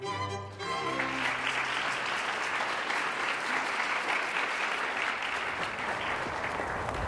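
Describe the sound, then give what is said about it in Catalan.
A brief tonal note at the start gives way to loud, sustained applause from a standing audience for young Amadeus Mozart's keyboard performance, a dense steady wash of many hands clapping with no talking over it. “La gent es posava d'en peus i aplaudia molt.”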